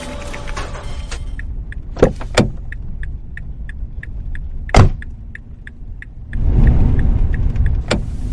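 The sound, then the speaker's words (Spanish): A girl gets into a car: clicks and a door-open chime pinging steadily, a solid door thunk, then a low rumble swelling up. No one speaks. “Sin decir ni una sola palabra, se acercó al coche y subió a él.”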